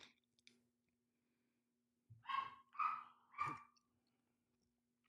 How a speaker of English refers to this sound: See, no one's home. That's why the dog's going crazy. And again, I think it's my Amazon delivery.